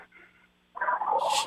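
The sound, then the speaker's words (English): A female English bulldog snorts and snores: a short, rough nasal rumble erupts after a moment of near-quiet, then trails into a breathy, hissing exhale. “She got to snore like crazy, doesn't she?”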